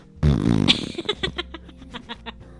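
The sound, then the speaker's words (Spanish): A voice imitates a fart, mimicking a girl in Grey's Anatomy whose medical problem makes her fart all the time: a long buzzing, sputtering raspberry of lip vibration, then a string of shorter trailing puffs fading out, fairly loud, with no words. “Sí, oye, ahorita me acordé de un capítulo de Grey's Anatomy en los que es una chava que tiene un problema médico y se echa pedos todo el tiempo.”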